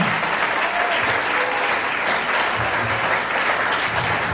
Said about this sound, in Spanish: Le damos un aplauso.